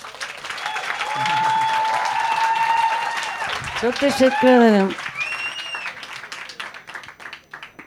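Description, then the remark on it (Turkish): An audience gives a thank-you applause, clapping steadily for several seconds, a dense wash of many hands clapping, while a voice speaks briefly over it and the clapping tapers off toward the end. “basmadan önce bir teşekkür alkışı alabilir miyiz?”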